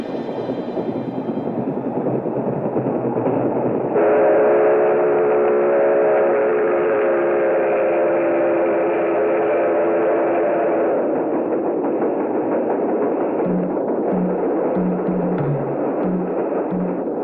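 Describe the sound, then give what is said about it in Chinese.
A speeding train from Bertolucci's film The Last Emperor, carrying Puyi back from the Soviet Union, roars steadily, its loud, sustained whistle blaring for several seconds in the middle, followed by a rhythmic low clatter of wheels on the rails. No voices are heard. “他就在这列疾驰的火车上。”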